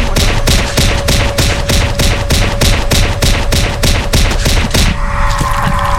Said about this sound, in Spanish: Ese sonido significa que acabo de morir.